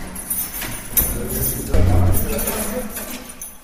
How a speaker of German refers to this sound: Das heißt, es gibt Inhaftierte, die können nur anhand des Klangs des Schlüsselsratterns auf dem Flur hören, wer da lang geht.